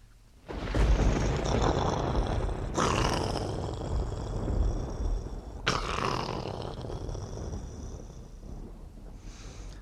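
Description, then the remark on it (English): A loud, sustained thunder rumble rolls on for several seconds, with two sharp cracking bursts partway through, then slowly fades toward the end. No voices are present. “Hey, that sounds like thunder.”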